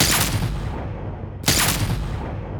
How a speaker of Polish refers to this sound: W tego typu grach ważne jest to, że my coś pokazujemy hyperrealistycznie, bo na przykład wystrzały z pistoletów na żywo nie brzmią tak ciekawie jak w filmach czy w grach